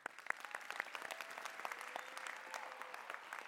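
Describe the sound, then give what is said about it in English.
An audience applauds at a church service after a closing prayer: a steady wash of many hands clapping with dense, crackling hits and a few sharper individual claps standing out near the start. No one speaks over it. “Can we clap it up?”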